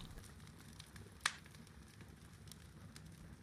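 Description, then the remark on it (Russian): Quiet evening campfire crackling, with people sitting around it under the stars, over a low, steady rumble, with scattered soft ticks and one sharp pop standing out partway through. No voices. “Обычно я приглашаю товарищей, мы сидим у костра, э, сжигаем огонь, смотрим на звезды беседуем о разных вещах.”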